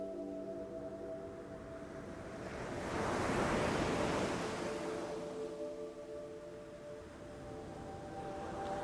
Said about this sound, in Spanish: Fíjate en las olas que vienen y van. Se mueven al mismo ritmo de tus pulmones cuando respiras.